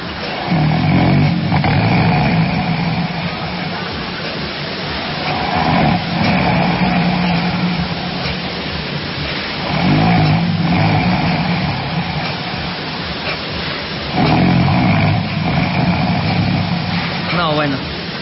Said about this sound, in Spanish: mandó los ronquidos de su mamá.